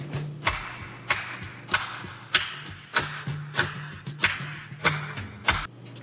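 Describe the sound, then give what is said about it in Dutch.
About ten handclaps in a song recording, in a steady, even rhythm, each sharp crack followed by a long echoing tail, over a faint low sustained tone. No one speaks. “Ja, en dan krijg je dus de handklappen.”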